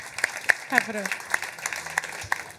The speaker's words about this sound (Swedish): Bra en eh, applåd.